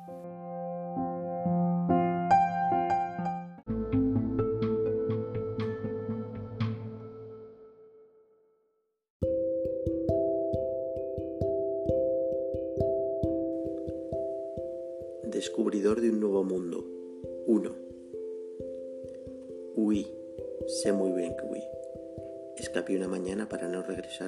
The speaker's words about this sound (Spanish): Pitido plano, lo hiciste.